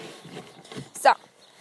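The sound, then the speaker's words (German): Hens cackle in the background in their coop in the morning, with one short, sharp squawk standing out loudly near the end of a murmur of low voices and barnyard noise. “Ja, ihr hört jetzt wahrscheinlich dann auch wieder im Hintergrund sie. Gar kann immer am Morgen, wenn, wir, wenn ich komme, dann gar kann sie immer.”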